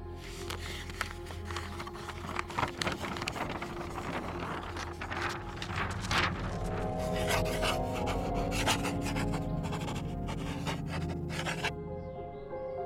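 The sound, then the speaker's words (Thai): Steady scratching of a pen on paper as a message is written, with quick rasping strokes running almost continuously before stopping near the end, over a faint low background hum. “ขียนข้อความลงบนกระดาษ”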